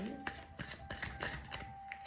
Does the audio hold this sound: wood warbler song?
no